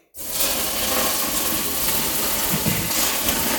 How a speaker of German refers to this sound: Ja, ich kühle ein bisschen die Steine runter mit Wasser. Das wäre hervorragend.